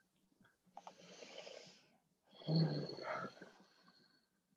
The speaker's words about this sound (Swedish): Andas.